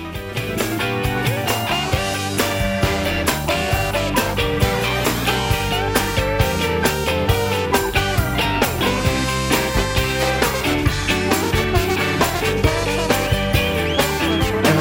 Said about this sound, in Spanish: Empieza la guitarra, Ahora la guitarra va a seguir, pero va a venir encima un trombón de varas.